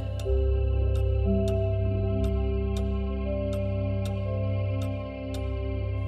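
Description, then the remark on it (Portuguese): A clock ticks steadily, about ten crisp, evenly spaced clicks, over a soft sustained musical drone with no one speaking. “Os ponteiros do relógio ajudam-te a fechar os olhos e ajudam o sono a chegar.”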